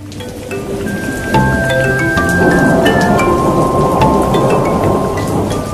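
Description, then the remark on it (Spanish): Steady, heavy rain pours continuously while deep, low thunder rumbles, swelling a little louder after the first second and holding through to the end, with faint tonal chirps above. “La época de lluvia ¿eh? me le puede fascinar, pues la humedad ¿eh?”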